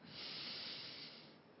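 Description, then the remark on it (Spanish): A single long, steady deep breath drawn in through the nose, a soft airy hiss lasting over a second and fading slightly at the end, quiet with no talking. “La espalda recta y respira profundamente por la nariz.”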